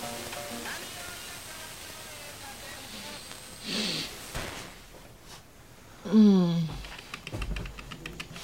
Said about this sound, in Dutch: En de aftrap is gegeven. Jawel, de koffiezet is in werking gezet.